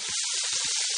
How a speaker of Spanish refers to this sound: El sonido de una hamburguesa en la sartén de una casa que ha terminado de pagar su hipoteca suena así.